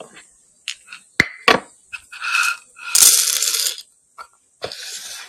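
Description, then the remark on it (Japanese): Noppo Coffee beans being loaded into a hand mill grinder: scattered sharp clicks and taps, then a bright, rattling patter of beans pouring in for about a second, followed by a few more clicks. No voices. “ようやくですね、はい、ハンドミルにのっぽコーヒーをセットいたしました。”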